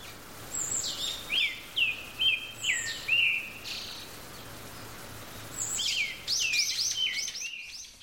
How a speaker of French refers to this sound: le seul bruit que Gion et le père Francisco entendent est le chant occasionnel des gazouillis des oiseaux